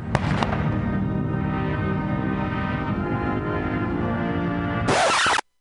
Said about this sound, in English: As the sun set over Washington Monday, President Bush's coffin arrived at the Capitol a hero's welcome heralded by cannons and a 21 gun salute.